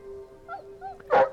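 A dog whines softly a couple of times, then lets out one sharp, loud yip-like bark over a faint steady hum.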